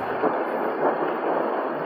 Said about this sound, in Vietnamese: rồi chỉ trong khoảnh khắc tiếng mưa rơi nặng hạt, chen lẫn những hồi sấm vang dậy và những ánh chớp sáng rực ngoài cửa sổ.